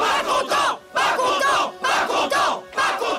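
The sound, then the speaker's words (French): A rioting crowd shouts in loud, surging waves, many voices roaring together in bursts with brief dips between them. “mais comme Jean est aimé du peuple et reconnu comme un prophète, Hérode Antipas a peur que son exécution provoque des manifs et des émeutes, et que ça parte en cacahuète.”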